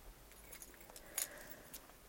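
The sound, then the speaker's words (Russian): A person's own keys jangle in a few quick metallic bursts, with one brighter clink in the middle, against a quiet background with no talking. “А у меня свои ключи.”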